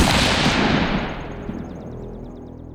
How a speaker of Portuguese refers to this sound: … é interrompido por um som que parece um tiro.